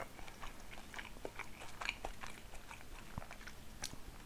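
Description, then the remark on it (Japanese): Someone bites and chews food, producing a steady series of crisp, crunchy crackles and snaps at an irregular pace, with no talking over it. “それがねものによると思うけどさ何でも心地いいわけじゃないと思うけどその何を食べてるかによっては結構心地よい音だったりするのよ”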